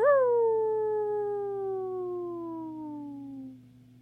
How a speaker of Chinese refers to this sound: 他找到一个大树洞，在里边蜷缩了一夜，狼群的嚎声